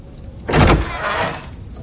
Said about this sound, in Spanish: En un dormitorio, Brien echa leña al fuego. Va hacia la puerta. Abre.